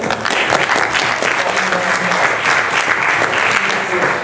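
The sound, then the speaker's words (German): A short burst of crowd applause for the hard work of the sound crew, many hands clapping in a dense, steady patter at a fairly loud level, lasting a few seconds without pause. “kurzen Applaus für den Ton der harte Arbeit.”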